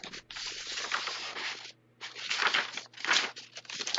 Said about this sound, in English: Sorry, turning the page.